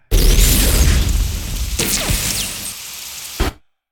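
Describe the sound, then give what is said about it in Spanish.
A loud blast as a camera is shot bursts into a long crackling clatter of breaking debris and tinkling shards as the camera breaks into four pieces, fading gradually before a final sharp knock ends it abruptly. “Y, parto en cuatro la cámara.”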